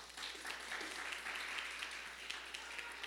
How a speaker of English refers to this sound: Thank you. Thank you so much. Give her a round of applause